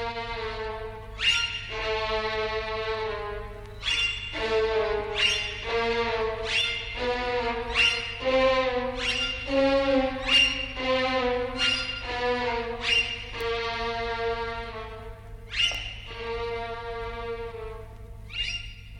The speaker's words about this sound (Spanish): Van a escuchar qué chistoso hacen los violines, como el rebuzno de un asno.